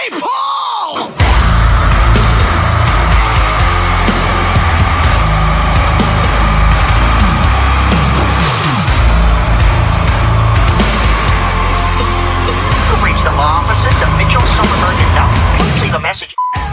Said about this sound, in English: we're now in a breakdown. It's 16 bars, brutally heavy breakdown with a monstrous underlying low guttural scream throughout. Very riffy stereo guitars, bass, and drums.